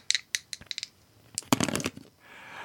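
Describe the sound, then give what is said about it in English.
Dice clatter and tumble in a cup or across a hard surface, a run of sharp rattling clicks followed by a denser burst of rolling clatter, fairly loud, with no talking, as dice are rolled to pick page numbers from a book. “But now, friends, it's time for the dice!”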